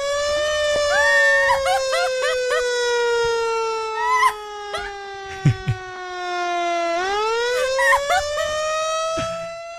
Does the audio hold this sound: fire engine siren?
yes